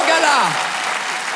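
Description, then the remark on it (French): A gala crowd claps loudly and steadily for Jason Brocker while a voice lets out a whooping cheer that slides down in pitch near the start, then the dense applause carries on. “Est-ce qu'on peut faire un maximum de bruit, s'il vous plaît, pour Jason Brocker”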